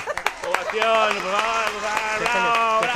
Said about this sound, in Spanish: No, no, por favor, un aplauso.